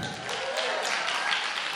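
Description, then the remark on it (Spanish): A steady burst of audience applause, a dense wash of many hands clapping at an even level with no pauses or voices over it. “Ah, sí, aplausos, sí, claro.”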